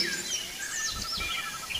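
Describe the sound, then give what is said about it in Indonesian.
Four sparrows chirping in quick, overlapping high tweets that run continuously, at moderate volume over a soft low rumble, with no one speaking. “Keempat burung pipit pergi agak jauh dari sarangnya.”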